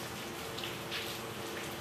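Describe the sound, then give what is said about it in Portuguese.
Steady rain pattering down, a dense, even hiss of raindrops striking a surface, fairly quiet and continuous with no voices. “Ai, que delícia, está chovendo aqui, ó. Você está ouvindo? Dá para ouvir os pingos da chuva?”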